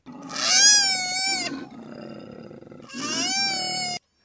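A koala's loud, rasping bellow: two long harmonic roaring bursts, each with a rising then steady drone, joined by a lower rumbling, snorting stretch in between. No talking.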